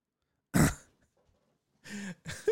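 A sharp cough rings out, then after a short silence come two rougher, throaty bursts like someone coughing and clearing their throat. No one speaks.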